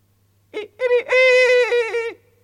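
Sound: rooster crowing at dawn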